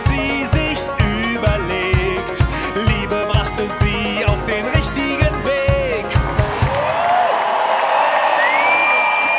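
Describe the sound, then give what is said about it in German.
Pounding, rhythmic music gives way to the huge roaring crowd of about 17,000 people as a concert begins, a dense wall of loud cheering with shrill whistles rising over it. “Das Konzert beginnt um 19.30 Uhr unter ohrenbetäubendem Jubel.”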